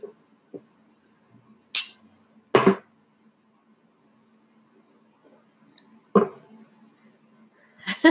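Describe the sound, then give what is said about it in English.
A few sharp, bright clinks of glass ring out at irregular intervals against a quiet background, fairly loud, like glasses tapped together in a toast. “Cheers.”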